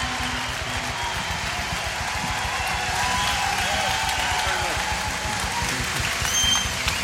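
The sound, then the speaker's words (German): Sustained audience applause welcoming Pastor Rich Wilkerson Jr. onto the Stepcon stage, a dense steady roar of many hands clapping at full volume for several seconds, with crowd noise mixed in and no clear speech. “Und wir wollen ihm mal unsere Liebe zeigen und ihn mit einem fetten Applaus hier bei uns auf der Stepcon-Bühne begrüßen.”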